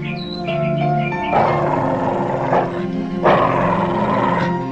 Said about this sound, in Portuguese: Oh, lobo, meu irmão lobo. Você deve tornar-se bom e manso.